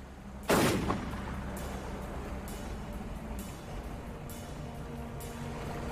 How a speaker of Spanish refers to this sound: Llevaron la nevera al mar, pero Thomas Capano calculó mal. El ataúd improvisado flotó. Thomas le ordenó a Jerry que le disparara a la nevera para hundirla. La nevera seguía flotando.